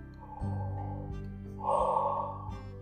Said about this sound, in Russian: Позеваем. Для того, чтобы позевать, нужно напрячь область под подбородком, сделать резкий вдох через нос и поднять небо.